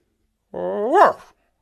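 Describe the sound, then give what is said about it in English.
A single drawn-out woof, fairly loud, that rises in pitch at the end; it sounds like a voice imitating a dog's bark, with no other sounds around it. “I said, which translated into English means don't ask me about all that clever stuff. I'm just your dog.”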